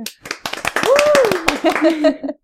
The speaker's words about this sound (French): Oh, euh, hey, on l'applaudit.